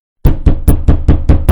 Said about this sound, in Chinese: 父亲吼道，随后便是一阵砸门声。